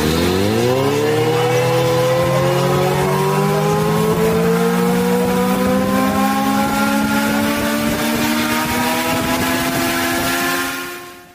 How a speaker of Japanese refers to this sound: 随分と勇ましい音ですけれども、これは ALI テクノロジーズという会社が展開している X トゥーリスモリミテッドエディションという車両が始動する音です。ALI ではホバーバイクという呼び方をしていますが、いわゆる空飛ぶ車の一種。長さ3.7メートル、幅2.4メートル、高さが1.5メートル